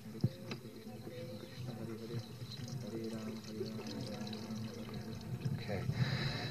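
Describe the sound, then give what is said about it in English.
A steady trickle of milk pours over hands and a garland during a ceremony, a soft continuous splashing that runs for several seconds, with low voices softly chanting Hare Krishna in the background throughout. “So while everyone chants softly Hare Krishna, he'll pour the auspicious milk over their uh, hands and the garland.”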